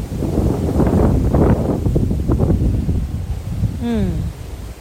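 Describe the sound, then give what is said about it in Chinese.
Strong sea wind gusts by the sea on an overcast day with light rain, roaring and buffeting in a loud, rumbling rush that swells and surges throughout, with a brief voiced exclamation sliding in pitch near the end. “哇，风又来了，好大风今天。”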